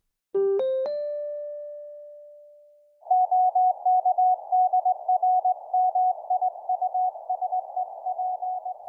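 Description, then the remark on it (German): A rising three-note chime rings out and fades, then a steady mid-pitched Morse code tone beeps in rapid short and long bursts, loud and clear with no voices. “Vor rund 120 Jahren ließen sich die ersten Textnachrichten drahtlos übertragen, per Morsecode.”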